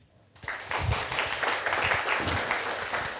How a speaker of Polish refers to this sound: Jest z nami też publiczność na żywo, co w ostatnimi czasy nie jest wcale takie oczywiste, więc myślę, że to jest świetna okazja, żeby autora przywitać oklaskami.